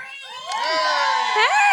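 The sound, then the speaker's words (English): A lively audience at a live event cheers and whoops, several raised voices overlapping in excited shouts. It is fairly loud, with rising calls swelling toward the end and no distinct rhythm of applause. “You just didn't clap for me, huh?”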